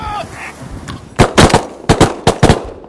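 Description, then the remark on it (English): A rapid volley of loud shotgun blasts, about seven sharp booming shots fired in quick pairs and triplets, while hunting ducks such as Eurasian wigeons and teals on an ocean bay in strong wind, following a brief quieter stretch with some faint tonal calls and wind-like rumble. “Normally, shooting the size ducks like the Eurasian wigeons and teals that we're shooting at today, I would probably choose to shoot like a, a number four steel.”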